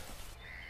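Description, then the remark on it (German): A short, harsh squawking call from black-headed gulls rises out of a rushing outdoor background, faint, with no voices present, in the Moselaue bird sanctuary at Perl-Nennig, Saarland, Germany. “Und was dahinter so schreit? Das sind die Lachmöwen.”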